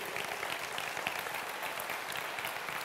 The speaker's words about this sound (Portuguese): os voluntários do Zoi, os voluntários na direção do culto, do louvor, os que servem na recepção, os que servem no ministério infantil, na transmissão, você pode aplaudir o Senhor pela vida deles, tantos servos aqui dessa igreja?